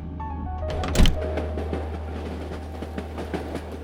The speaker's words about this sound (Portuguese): composição parte, deixando as luzes da estação para trás ao fazer a curva, sumindo em meio à bruma que encobriu o horizonte.